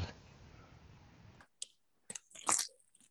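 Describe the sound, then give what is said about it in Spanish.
Someone chewing food, with a few moist, crunchy bites and clicks coming in short irregular bursts after a stretch of steady hiss. No one talks. “¿qué, es el ruido que escucho? Mmm. comiendo.”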